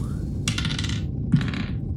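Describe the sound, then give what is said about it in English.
Dice clatter across a hard tabletop in two separate rolls of hit dice during a short rest in a tabletop game, each a short, bright rattle of tumbling cubes, with no voices. “I need one, two rolls of the hit dice to get A-tum. back to full.”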